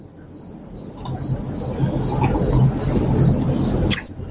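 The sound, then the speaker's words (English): Small coquí frogs chirp in a steady, repeating series of high, piping notes, about a dozen calls evenly spaced over a low, rumbling night-time background, ending with a brief clatter. “coquí. Little frogs, they will sing you to sleep.”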